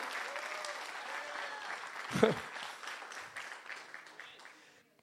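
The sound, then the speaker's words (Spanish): An audience applauds the Lord steadily, many hands clapping in a dense, continuous patter with a brief louder burst in the middle, mixed with faint voices, before the clapping thins out and stops. “Alguien den un aplauso al Señor.”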